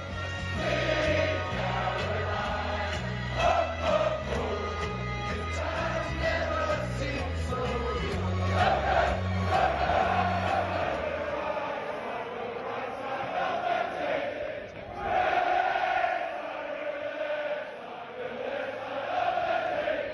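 A packed golf grandstand crowd at the first tee roars and chants without pause for twenty seconds, a dense wall of voices that swells louder at moments, with yells rising above it.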